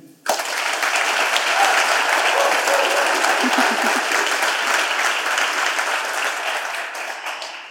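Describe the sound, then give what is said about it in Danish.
A live audience in the library hall (Bibliotekssalen) of the Rundetårn, the building housing Denmark's oldest observatory, breaks into sustained applause, dense and loud clapping that fills the hall for several seconds before slowly tapering off near the end. “vi denne gang optager live med et spil levende publikum her fra Bibliotekssalen i Rundetårn”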